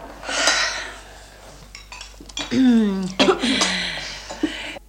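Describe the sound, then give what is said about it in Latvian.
Hot coffee pours in a steady hiss into cups while cups and saucers clink and rattle, with a voice briefly speaking in between the pours. “Lūdzu, manas dāmas, gluži karsta kafija. Ministra prezidenta kundze, drīkst jums ieliet?”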